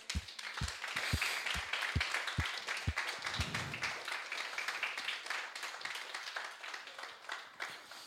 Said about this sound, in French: Et est-ce qu'on peut simplement ce matin applaudir tous ceux qui vous servent, tous ceux qui nous servent